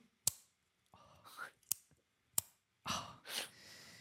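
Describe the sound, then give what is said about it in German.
Three crisp, sharp clicks from a solid pen's push mechanism, spaced irregularly, with soft breathy exhales and rustling noise filling the gaps between them. “Allein ganz kurz die Klickfunktion.”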